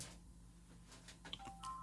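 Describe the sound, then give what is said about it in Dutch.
A phone starts ringing: a couple of short electronic tones sound near the end over a low background hum, fairly faint and with no one talking. “Ah, die zegt, oh, ik bel, ik bel, ik bel, ik bel, ik bel, Ja, goedemorgen.”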